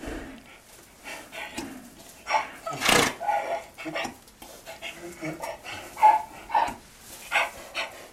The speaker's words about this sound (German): Okay, so klingt ein Esel um 6.15 Uhr morgens, genau, wenn er genau. Hunger hat.